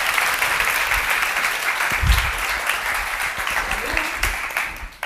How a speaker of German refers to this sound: Einmal ganz laut klatschen.